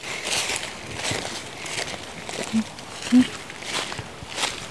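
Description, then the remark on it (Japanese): Steady crunching footsteps on dry fallen bamboo leaves along a walking path through a bamboo grove, a regular walking rhythm of crisp rustling steps, with a couple of slightly louder crackling steps partway through. “竹林に入ってきましたね足元にもたくさんこれ竹のね笹の葉っぱでしょうか落ち葉もたくさん落ちていてサクサクという音がさっきから響いてます”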